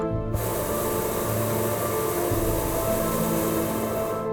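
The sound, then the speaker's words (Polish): A loud, steady roaring hiss of hot air balloon burners heating the air kicks in abruptly and blasts continuously without pause, with a low rumbling undertone and no voices, as the balloon SP-BZP, carrying three people, lifts off among dense city buildings in Bielsko-Biała, Poland. “Palniki wciąż ogrzewają powietrze wtłaczane do wnętrza balonu.”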